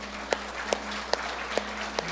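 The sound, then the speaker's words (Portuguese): An audience applauding the Lord in steady unison, five sharp, crisp claps evenly spaced about two per second, each standing out clearly above a low, constant background hum with no talking. “Dê uma forte salva de palmas para o Senhor.”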